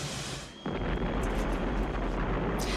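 A huge nuclear explosion in a film erupts after a brief lull, becoming a loud, sustained roar with deep rumbling and crackling debris that continues steadily to the end. No voices.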